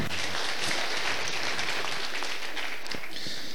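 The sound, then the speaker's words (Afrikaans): A church audience claps at the preacher's request during a sermon, many hands blending into a dense, steady wash of applause that holds at a fairly loud level throughout, with a few sharper individual claps popping out. “Kun jy van die handen klap?”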